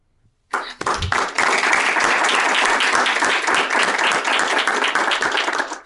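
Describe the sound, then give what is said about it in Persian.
Loud, sustained applause from an audience welcoming Dr. Amirali Nojoumian to come up, starting abruptly and continuing as a dense wash of many hands clapping with no talking over it. “با دستای خودتون آقای دکتر نجومیان رو همراهی و استقبال کنیم که تشریف بیارن”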